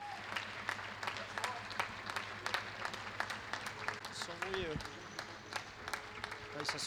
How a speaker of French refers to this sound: J'avais prévu de d'enregistrer un peu avant 20h parce que les gens ont prévu d'applaudir aux fenêtres pour le personnel soignant.